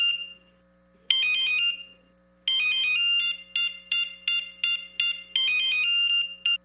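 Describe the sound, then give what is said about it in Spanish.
A mobile phone ringtone in a Movistar advertisement plays loudly, a bright electronic melody in repeated bursts of chirpy beeping notes with short pauses between phrases, and no voices. “Si pensaste que sonaba tu celular, es momento de cambiarte a un smartphone.”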